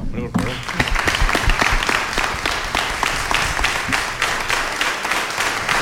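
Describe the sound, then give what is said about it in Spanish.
An audience breaks into applause for a guest after a brief pause, with many hands clapping in a dense, steady patter that holds at an even, fairly loud level for several seconds. “Vamos a aplaudirlo también, ¿no, hombre?”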